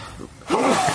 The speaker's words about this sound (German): Gesundheit. Vielen Dank.